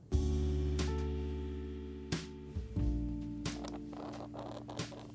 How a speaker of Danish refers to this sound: Det her er lyden af en meget, meget ny bog.